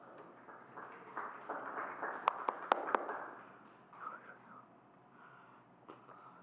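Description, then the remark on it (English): A room full of people gives a round of applause to thank a performer for his talent, a dense patter of clapping with a few sharp claps standing out, then gradually thinning and fading to scattered claps. “Just really want to thank um, Russell for stepping in this morning and his tremendous talent round of applause.”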